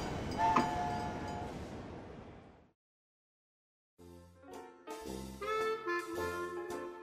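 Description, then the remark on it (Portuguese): A train rumbles and screeches as it slows, the noise fading away to a stop and a brief silence, followed by louder tonal, horn-like sounds with no one speaking. “Vocês sentem que o trem está parando e já chegou a hora de desembarcar.”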